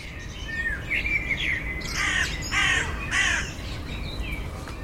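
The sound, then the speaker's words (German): A crow caws three times in a steady rhythm, harsh and raspy, over a constant low rumble, with a few thin bird chirps just before the calls. “Bei einer Krähenart in Australien dann hat man gefunden, dass die plötzlich viel häufiger am Strand aufgetreten sind”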